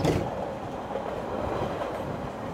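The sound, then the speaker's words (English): A moving train rumbles and clatters steadily along the rails, a continuous rolling din of wheels and carriages with no voices. “A gang of thieves has been following this train, watching it, waiting for just the right time.”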